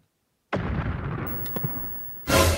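After a brief silence, an electrical transformer explodes with a sudden loud boom that rumbles and crackles for nearly two seconds, followed by a second sharp burst at the end.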